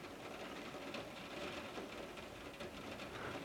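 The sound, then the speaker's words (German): Steady rain falls outside on a rainy day at home, a continuous soft hiss with faint patters and crackles. It sounds even, with no voices. “Ich weiß schon, dir fällt irgendwann die Decke auf den Kopf, aber ich finde solche Regentage zu Hause können sehr schön und intim sein.”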